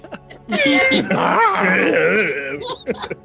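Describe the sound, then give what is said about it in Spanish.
A person vocally imitates a reindeer crying: a sustained, wavering, moaning wail with bleating pitch bends, lasting about two seconds, fairly loud, ending in a few short sobbing catches. “Inserte sonido de reno llorando aquí.”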